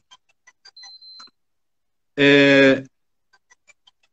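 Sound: telephone ringing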